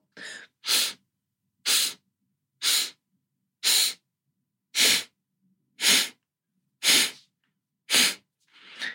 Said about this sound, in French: tu peux essayer la respiration en quatre temps où euh, tu inspires en quatre temps par le nez et tu expires en quatre temps par le nez. Donc ça donne quelque chose comme ça.